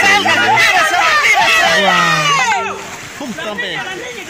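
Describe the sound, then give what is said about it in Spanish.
Rushing floodwater of a creek churns and splashes steadily as it sweeps away a pickup truck in cantón Pavana, San Alejo, La Unión, while a crowd of excited onlookers filming it shouts and chatters, their overlapping voices nearly drowning out the torrent. “Ahí se ve cómo se lleva el, río esa camioneta quedó, o sea, pero, pero, estos muchachos que estaban ahí grabándolo, sí que justamente lo grabaron perfectamente.”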